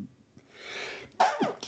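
A single human sneeze: a drawn-out breathy inhale builds up, then a sharp, loud burst with a short nasal tail. No talking.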